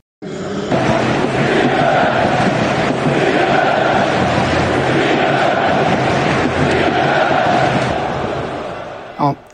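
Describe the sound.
A large Belgian football crowd in the stands of King Baudouin Stadium, holding up lit mobile phones, chants in unison on a Monday evening, a loud, continuous roar of massed voices that swells in after a brief pause and holds steady for several seconds before cutting off.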